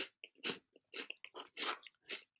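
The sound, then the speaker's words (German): Crisp crunching of gluten-free crackers being chewed, with about six loud, crackly bites in an uneven rhythm and brief pauses between them. No one speaks. “Nein, es sind glutenfreie Cracker.”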